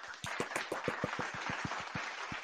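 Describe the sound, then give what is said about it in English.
A quick, steady run of hand claps, about a dozen sharp, crisp smacks in a couple of seconds, fairly loud over a faint hiss, with no voices. “I'm clapping.”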